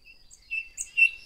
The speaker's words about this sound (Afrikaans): Maar toe, skielik, verhelder die keiser se gesig, want hy hoor die pragtige lied van die klein grys nagtegaal deur sy kamervenster. Hy kyk op en hy sien haar op die vensterbank sit en sing.